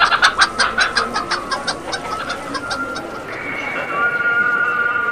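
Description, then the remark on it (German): Chickens for sale at a crowded market in an old medina cluck in a rapid run of sharp bursts during the first three seconds, over a loud, busy outdoor hum of people; a sustained tonal sound, a call to prayer heard across the town, then rises and holds. “Hier verkaufen sie sogar Hühner.”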